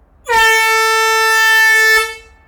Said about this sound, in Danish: Sådan, så vi har en større mulighed for at komme, komme i sikkerhed. Og der har vi sådan en speciel horn, hvor vi så kan gøre opmærksom på, hvad der sker nede ved, ved den anden.